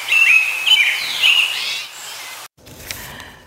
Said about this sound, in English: Welcome to BC Nature Sounds. In this recording, you will hear the beautiful sound of birdsong in the late spring.